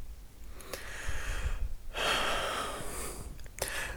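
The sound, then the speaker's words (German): Slow, deep breathing: a long airy inhale followed by a louder, fuller exhale that rushes for over a second, with no talking. “Wer hier gerade so tief atmet, ähm, das ist der Bereich in mir, den ich das innere Kind nenne.”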